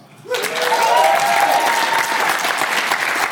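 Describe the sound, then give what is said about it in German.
A crowd breaks into sustained applause after a quiet moment, a dense wash of clapping that swells quickly and holds steady, with a few faint voices or cheers mixed in. “Applaus.”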